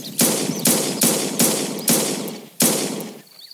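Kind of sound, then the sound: sound effect, gunshots fired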